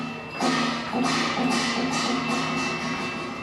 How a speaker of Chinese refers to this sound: 而随着时间经过，诵经声中甚至还加上了铜锣、铜盘等法器的声响，变得越来越激昂。日前，在日本富山市的电铁富山车站站内，喇叭系统突然传出连串的诵经声，民众纷纷拿出手机把它录下来。